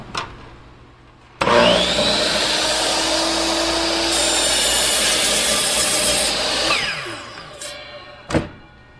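A chop saw starts with a sudden loud whine and roars steadily as it cuts ripped raw wood down to size, strips to be glued into a tail block, for several seconds, then winds down, followed by a sharp click. No one speaks.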